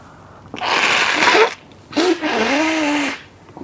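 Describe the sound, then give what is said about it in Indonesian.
Someone with a cold blows their nose loudly, two long, forceful honking bursts with a short pause between them, the second one with a nasal whistling tone. “uh, baru sekali kan lu denger announcer buang Ingus ini one day ini akan ada nih yang beli Ingus gue”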